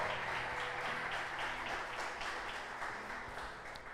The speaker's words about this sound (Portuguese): Se você crê, diz amém, aplauda bem forte a Ele e aleluia! Glória a Deus!